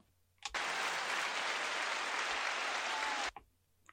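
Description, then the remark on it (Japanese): A canned applause sound effect, played by pressing a button on a recorder's sound-effect and jingle feature, bursts in abruptly, plays loud and steady for about three seconds, then cuts off just as suddenly, with no talking around it. “さらに、効果音とかジングルとかをボタンを押して鳴らす機能があるんですが”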